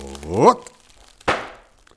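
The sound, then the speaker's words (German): A short voiced shout rising in pitch, then after a brief pause a single dull, fairly loud splat as a pancake, flung from a frying pan with too much swing, strikes and sticks to the ceiling. “Guck mal, Papa, diesmal klebt der Pfannekuchen an der Decke.”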